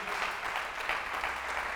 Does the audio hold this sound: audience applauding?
yes